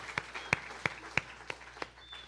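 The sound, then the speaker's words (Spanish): Scattered hand claps from an audience, about seven sharp claps at an uneven, unhurried pace, fairly faint over a steady low hum, with no talking. “Sí, aplaudamos.”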